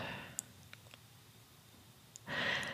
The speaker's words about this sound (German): Ihr stellt euch mit etwa einem anderthalb Metern Abstand einander gegenüber, schließt erst einmal die Augen und atmet tief durch den offenen Mund ein und aus, so dass ihr euren Atem hört.